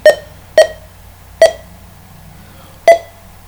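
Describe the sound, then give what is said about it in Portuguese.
Four short electronic beeps from a screen reader, signalling progress during a software update. They are clear and fairly loud, spaced irregularly with a longer gap before the last, and no one speaks. “Para quem está a ouvir e é uh, uma pessoa normal visual, estes barulhos é o leitor de ecrã a nos indicar que o programa está a ser atualizado.”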